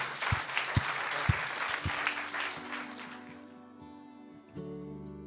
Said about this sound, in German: Ein Applaus, Dankeschön.